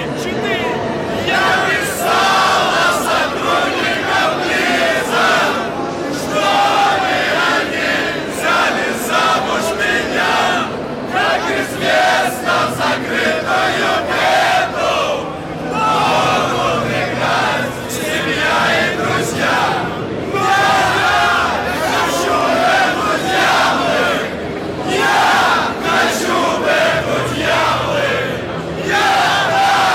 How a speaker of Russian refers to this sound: мы собрали в субботу э, во второй для публики, в третий для нас День Игромира, собрали флешмоб напротив э, стенда компании Blizzard, на который э, приперлось много народу